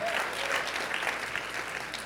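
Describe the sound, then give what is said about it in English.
A crowd claps their hands in steady, dense applause, a bright continuous patter of many overlapping claps that holds at a fairly even, moderate loudness throughout. “Come on, just clap your hands if you got at least one thing to rejoice about.”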